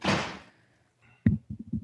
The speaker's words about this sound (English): Hold on, I gotta unlock the door. All right.